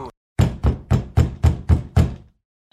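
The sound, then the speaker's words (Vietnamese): Seven firm knocks on a door in a steady, fairly quick rhythm, loud, each with a brief resonant decay, followed by silence. “Mở cửa ra”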